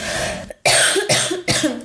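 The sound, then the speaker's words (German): A loud run of four harsh, raspy coughs in quick succession from a person who says they are smoking too much, each a sharp burst with a brief pause between, and no talking. “Ich muss nochmal husten, Entschuldigung.”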